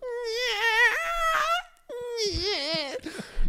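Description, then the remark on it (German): A voice imitates the squeaking of a car, two drawn-out, high, wavering whines separated by a short pause, fairly loud. “Nee, ist ja alles gut, aber es ist einfach dieses, dieses Quietschen.”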